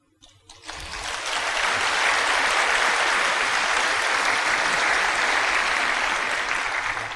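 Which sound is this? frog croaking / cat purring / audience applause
audience applause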